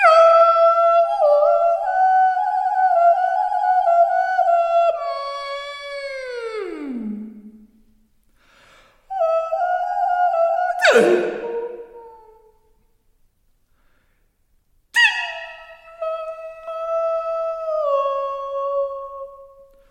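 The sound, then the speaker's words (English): A female vocalist imitates birdsong with long, sustained whistly tones that slide and swoop in pitch, delivered in three loud phrases separated by brief silences. “when I listen to …, I'm thinking that she's replicating bird song”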